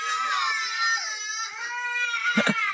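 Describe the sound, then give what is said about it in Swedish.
Children wail and scream continuously at high pitch, loud, with sobbing cries overlapping throughout and a brief lower burst near the end, in a TikTok video of a parent taking the kids out to do something fun. “Me taking my kids do something fun so we can make memories. De bara skriker.”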